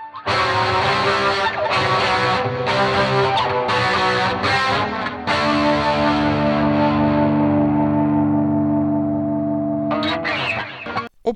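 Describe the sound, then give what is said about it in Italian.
Loud electric guitar drenched in effects: choppy, rhythmic strums at first, then a long ringing chord that trails off in echoing repeats before a few more bursts of playing. “oppure ancora, eh, non so, trovo un effetto giusto, un eco giusto, una mh, mm, sonorità che mi interessa e mi vengono in mente, non so,”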